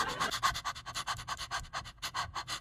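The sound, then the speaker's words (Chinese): A person pants in short, quick, breathy bursts, about six or seven per second, a steady rhythmic huffing with no talking, demonstrating small rapid breaths as a breathing exercise for singing. “然后就是小口喘，”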